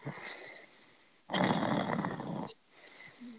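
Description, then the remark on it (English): A voice imitates a snore: one loud, rasping inhaled snort lasting about a second, framed by quieter breathy sounds, with no speech. “Sorry, I nodded off for a second there.”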